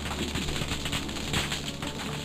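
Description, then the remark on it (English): Snapping shrimp crackle steadily underwater, a dense, continuous sizzle of tiny sharp clicks that sounds like grease frying, with no voices. “The snapping of their claws is a manner of communicating or a manner of drawing prey toward one another.”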